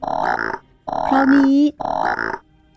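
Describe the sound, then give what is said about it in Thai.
A voice imitates a large frog's croaking: three deep, throaty bursts with short pauses between them. The middle croak is drawn out into a low, sustained groan, fairly loud. The croak is far bigger than an ordinary frog's, heard at night by a cliff under hazy moonlight. “พอขาดคำ ก็มีเสียงกบร้อง”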